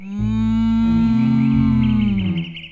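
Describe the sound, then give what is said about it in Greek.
A single long, loud cow moo, steady, holding a low drawn-out tone for over two seconds before trailing off. No talking. “Μόνο που είναι και οι αγελάδες.”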